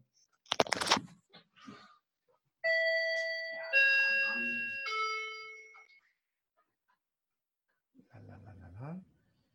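An electronic doorbell chimes two ringing tones that fade out over a few seconds, preceded by a sharp rustle or click and followed by a brief spoken voice.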